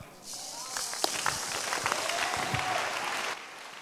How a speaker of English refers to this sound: Have you catch it now? Those of you are clapping, it means that you have catch it. I said, those who are clapping, they've caught it.